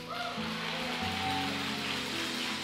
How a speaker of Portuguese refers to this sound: Dá uma salva de palmas.